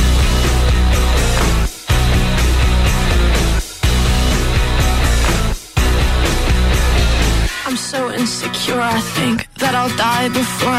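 A loud pop song with a dense, driving full-band sound that cuts out abruptly every couple of seconds, then shifts into a sparser section with a prominent singing voice.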